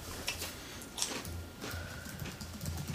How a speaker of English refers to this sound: I'm typing in the show notes Why do you do that when we podcast? Because then we hear clickety click clickety.